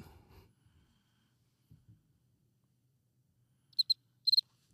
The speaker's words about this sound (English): Yeah, man, it's gonna be a lot of crickets.